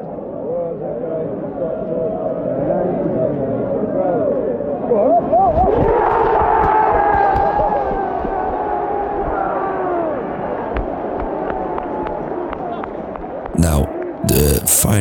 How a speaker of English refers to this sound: He's badly advised, and he deserves an applause like that and a moment like that as an academy boy who scored in important cup finals for United.